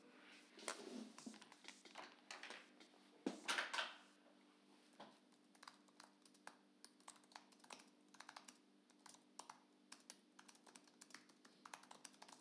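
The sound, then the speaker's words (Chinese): Steady typing on a computer keyboard as someone types out text that includes commas, a quick irregular patter of key clicks with a few louder clustered strokes early on, continuing without any voices. “天呐，你打字居然还用逗号儿，嗯，用我们老板娘的话说，这个不够 fashion，就不要带标点符号。”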